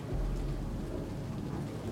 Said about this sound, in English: No, I, I only heard a plane go by.